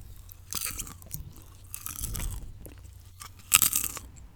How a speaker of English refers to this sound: You are in your house. There's some Shark Man on the telly. You're maybe eating a bit of popcorn.